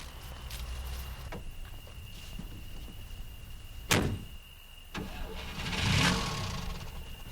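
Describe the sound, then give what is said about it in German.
A car door thuds shut, then an engine turns over and rises into a swelling rev as the vehicle pulls away, heard over a steady low rumble with no talking. “Der Außerirdische steigt in ein Auto?”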